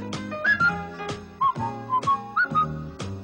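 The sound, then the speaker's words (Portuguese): A song plays with a bright whistled melody, short gliding notes rising and falling over a steady, rhythmic instrumental backing with regular beats. No one speaks. “É, ele canta é... a música. Ouve aí a música, vai.”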